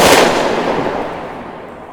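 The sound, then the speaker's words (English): A single loud gunshot cracks out in a cave, then a long booming reverberation rolls on and slowly fades as the blast echoes through the cave. “The gunshot tore through the cave.”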